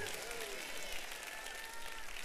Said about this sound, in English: And if you're thankful for Jesus, clap your hands and give God praise right now. Hallelujah.